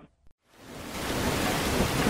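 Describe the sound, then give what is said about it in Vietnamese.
After a brief near-silent moment, steady heavy rain of the rainy season in the Mekong Delta swells in and fills the scene, a dense hiss with a low rumble of thunder beneath it, no voices present. “độ tầm cuối tháng tư đầu tháng năm âm lịch là vào mùa mưa của vùng đồng bằng sông Cửu Long.”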